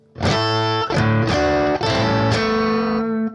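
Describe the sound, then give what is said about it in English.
A distorted electric guitar plays a short, clear phrase of about four or five ringing notes, picked down, up, down with an upstroke into a hammer-on slurring between them. The final note sustains, with no voices. “You can either go right into a, an upstroke for that hammer on, and then right into that.”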